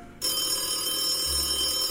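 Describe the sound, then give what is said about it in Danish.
A telephone rings at an ungodly hour with a loud, sustained bright bell tone that starts abruptly and continues steadily, with a low hum rising underneath toward the end. No voices are heard. “Hvem ringer dog på det her ukristelige tidspunkt?”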